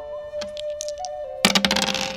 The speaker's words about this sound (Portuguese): Enquanto vocês estão descansando, eu vou rolar um D4 pro Clank, um D4 pro Goblin e um D4 pro Bastão de Vidro. Esse, esse D4 significa em quanto tempo eles podem acordar ou não.